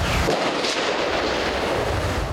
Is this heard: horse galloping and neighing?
no